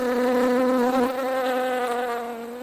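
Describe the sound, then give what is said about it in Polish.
A bee buzzes steadily, a continuous droning hum with a slight wavering pitch that fades a little toward the end. No voices are heard. “Tak więc chociaż pszczoły czasami nas denerwują, to są bardzo potrzebne.”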